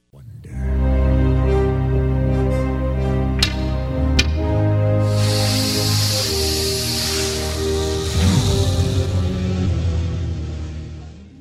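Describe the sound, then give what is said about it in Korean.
Snakes hiss in a steady, breathy wash as Egyptian magicians throw down their staffs and turn them into snakes before Pharaoh, rising midway and continuing to the end, layered over sustained orchestral music with a few sharp accents early on. “그리고는 자신들의 지팡이를 던져 뱀이 되는 마술을 보여주지요.”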